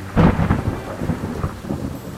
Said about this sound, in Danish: Jeg står op til regnvejr og voldsom blæst.